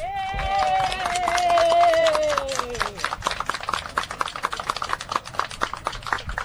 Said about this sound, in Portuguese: Estamos no centro de Porto Alegre, ao lado do Mercado Público, para a comemoração dos 97 anos da Rádio Gaúcha. Sejam todos bem-vindos. Eu queria uma salva de palmas à Rádio Gaúcha!